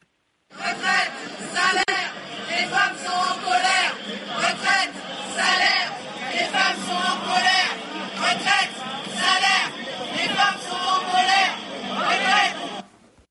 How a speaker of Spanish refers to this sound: Las mujeres están enojadas, gritaban pues miles de mujeres hoy en las calles de París, pero también en las calles de otras 150 ciudades francesas en el marco de esta manifestación por los derechos de las mujeres.